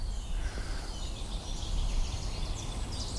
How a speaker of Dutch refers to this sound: Dat is een vink. Links zit een zanglijster.